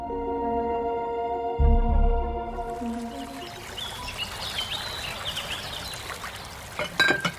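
Liquor glugs and trickles as a shot is poured into a glass at a secluded waterfall, with a low thump near the start, then a steady splashing pour and faint clinks toward the end, no talking.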